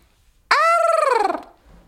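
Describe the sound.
A person's voice imitates a strange bird-like call: one loud, nasal squawk that starts abruptly, then wavers into a trembling gobble for about a second before cutting off, with no other sounds around it.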